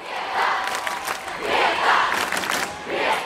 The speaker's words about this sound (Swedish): Det här är ett klipp, men det här är då eh, hur det lät i publiken när Sveriges enda riktiga rockstjärna presenterar sig.